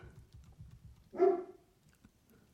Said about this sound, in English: I hear dogs somewhere near.